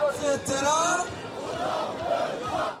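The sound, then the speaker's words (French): A large protest crowd in France, hostile to the government, chants slogans together, loud massed voices rising and falling in a rhythmic, continuous roar with shouted accents throughout. “des slogans, une foule compacte et des pancartes toujours hostiles au gouvernement.”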